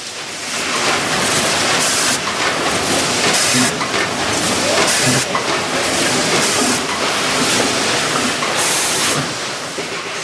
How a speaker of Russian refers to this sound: we have again a sieve and the dust extraction